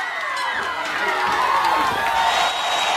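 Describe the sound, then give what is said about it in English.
A World Championship Wrestling crowd screams and cheers in a loud, sustained roar during a chaotic match with chairs and referees on the floor. Shrill overlapping voices rise and fall throughout, with no single voice standing out. “So, a lot of screaming going on there, wasn't it?”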